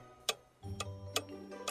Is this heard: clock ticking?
yes